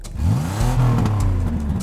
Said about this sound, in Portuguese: O motor roncou alto, urro de monstro.